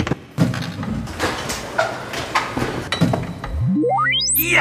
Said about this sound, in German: Ha, die nächste und letzte Tür, die Karo-Tür ist offen.